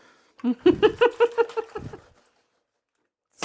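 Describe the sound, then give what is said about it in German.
Thick tomato puree glugs out of a container in a kitchen in a quick, rhythmic run of about eight gurgling pulses that fade and taper off, with no talking. “was ihr hier gluckern hört, ist jetzt gerade der Tomatenpüree.”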